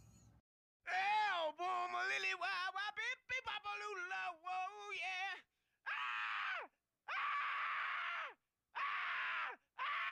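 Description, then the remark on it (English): At the intro of a rock song, a man yells loudly and hoarsely in a rapid, wavering run of strained bursts, then lets out four long, sustained yells separated by brief silences, with little accompaniment beneath. “Um, but this intro of him let's just call it yelling has really stuck with me.”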